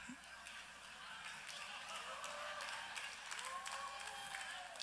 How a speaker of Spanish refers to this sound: Mira, quienes están aplaudiendo no son los hombres. Ellas están encargadas del aplauso.